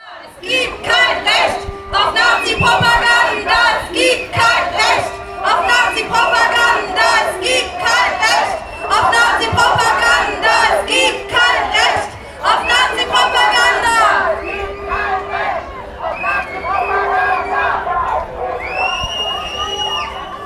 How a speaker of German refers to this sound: Was ihr hier hört, sind Parolen, die auf dem Wasser auf der Spree gerufen wurden, in unmittelbarer Nähe der Auftaktkundgebung der AfD. Zwölf Boote hatten sich dort versammelt. Es waren ganz unterschiedliche Größen der Boote.